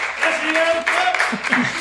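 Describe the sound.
An audience claps steadily, a dense wash of hand claps with some cheering voices mixed into the noise, lasting about two seconds.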